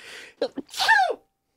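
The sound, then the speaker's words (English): A single loud sneeze: a breathy hiss and two quick sharp inhales building to an explosive burst that trails off, then silence. “God bless, bless you. Me. Bless you.”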